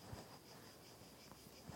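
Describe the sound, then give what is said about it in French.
A faint, steady outdoor drone of cicadas, their high buzzing pulsing gently and continuously, with a few soft low thumps and no voices. “Et là, on va laisser les cigales.”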